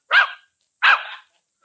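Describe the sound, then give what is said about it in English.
A dog named Susie, asked how much is one and one, barks twice, two short, loud barks separated by a brief pause, with nothing else around them. “a very smart dog.”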